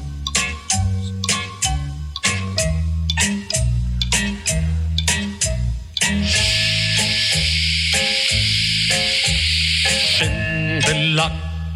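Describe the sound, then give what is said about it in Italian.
A steady hiss of running shower water, switching between hot and cold, bursts in for about four seconds over a bouncy rhythmic music track with a plucked bass line, then cuts off as the music carries on. “scroscia l'acqua calda, fredda, calda, giusta.”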